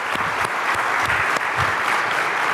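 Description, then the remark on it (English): Loud, sustained applause from an audience at a talk, prompted to make as much noise as they can, fills the whole stretch: a dense wash of clapping hands with no one speaking over it, steady throughout. “Just get your hands as wide as you can and just follow through. Ready, go? One, two, three. Make as much noise you can now that you're here.”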